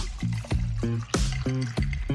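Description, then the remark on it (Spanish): Brancamenta liqueur pours into a glass over ice in a series of rhythmic glugs, each gurgle rising in pitch as the bottle tips, with no voices present. “Servís la medida justa del nuevo brancamenta Richet italiana.”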